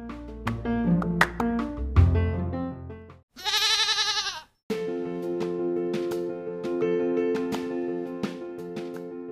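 A single loud, wavering goat bleat lasting about a second, used as a transition sound between presentation slides in a lecture, set between stretches of bright tonal music with plucked, rhythmic notes before and after it.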